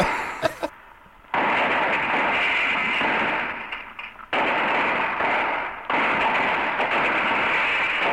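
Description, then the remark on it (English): A gunfire sound effect: a few sharp cracks, then long, loud volleys of rapid shooting that roar almost continuously, broken by two short pauses. No one speaks. “And here's, so here's some shooting we... guns again.”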